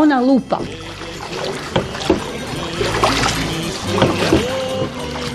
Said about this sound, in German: Batana e, kommt aus der italienischen Verb battere, das bedeutet auf Deutsch übersetzt stoßen, weil wenn das Schiff über die Wellen geht, dann stoßt richtig über den Wellen und man hört so ein kräftiges Geräusch.